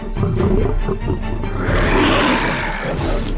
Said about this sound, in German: Und das war der Tiger. Oh, wie sehr er sich ärgerte. Hört selbst.